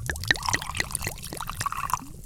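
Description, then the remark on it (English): Liquid pours steadily into a glass, with a quick run of rising, gurgling glugs. No voices, just the bubbly splash of the drink filling up. “So, pour yourself a favorite drink,”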